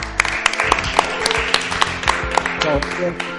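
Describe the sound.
An audience bursts into applause, many hands clapping in a dense, irregular patter that holds steady for a few seconds, with a murmur of voices underneath.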